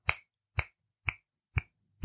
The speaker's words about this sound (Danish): Skal vi knipse?